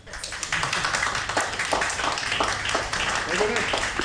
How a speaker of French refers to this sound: Mais merci en tout cas pour la visite. bravo à tous. Hein. Euh, on peut applaudir le chef